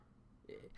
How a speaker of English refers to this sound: Emmett, dog, you need to stop growling